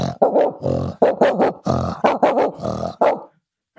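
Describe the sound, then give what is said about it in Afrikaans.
A person, as a party trick, imitates a big dog barking at the gates in South Africa, letting out a rapid run of about eight loud, gruff barks, then falls silent. “So dis altyd die klein hondjie wat gaan gaan. En dan kom die groot hond”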